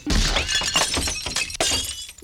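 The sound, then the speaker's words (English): Glass shatters in a loud burst of breaking, with repeated crashes and tinkling fragments over about two seconds, continuous, like several light bulbs being smashed one after another. “And on your way out, hit the lights.”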